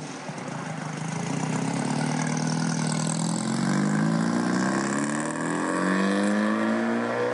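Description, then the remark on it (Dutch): A four-cam engine of a 1955 550 Spider sports car, chassis 550 0076, which raced in 1957, runs steadily, its low throaty idle rising and falling through a few revs, loud and continuous with no talking. “Dat is een 550 Spider uit, 19, uit 1955.”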